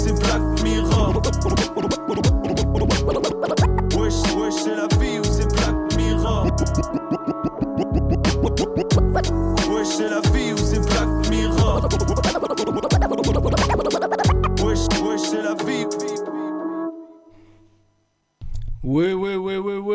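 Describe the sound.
A loud French rap track plays with a steady beat, dense instrumentation and a rhythmic vocal delivery, then fades out near the end before a voice briefly begins speaking.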